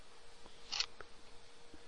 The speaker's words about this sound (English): What, what are you doing? What is that? Coins? Again? Again with the coins.